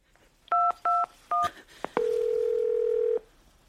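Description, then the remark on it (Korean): Three quick keypad beeps from a phone being dialed to call the 119 emergency number for an ambulance, then a couple of soft clicks and a long, steady electronic tone. Clear, with no voices. “나는 폰을 들었다.”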